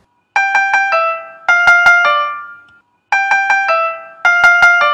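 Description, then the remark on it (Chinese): The four-note opening theme of Beethoven's Fifth Symphony, altered from C minor to C major (sol-sol-sol-mi, with E natural replacing E-flat): three quick repeated notes falling to a held fourth, played twice on a bright, ringing instrument with no voices. “那如果这个主题不是用 C 小调的骚骚骚降咪去来完成，而是用 C 大调的骚骚骚咪还原咪来完成啊，它就是完全另外一幅景象了，听起来可能会有一点滑稽啊。”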